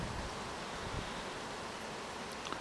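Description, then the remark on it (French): Wind blows steadily across an open mountain path where the forest thins out, in sunny, fine weather, a continuous broad rushing hiss with faint rustling and no voices, holding an even level throughout. “Donc nous voici exposés au soleil, au vent, plus qu'auparavant.”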